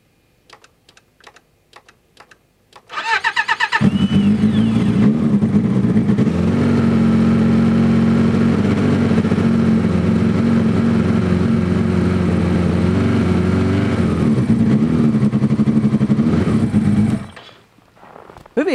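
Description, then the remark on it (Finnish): A few sharp clicks, then a snowmobile engine catches and roars to life, running loud with a steady, buzzing rumble and slight revving for about fourteen seconds before cutting off. “lähti käyntiin. Onko tämmöisellä moottorikelkalla minkäänlaista pakkasrajaa?”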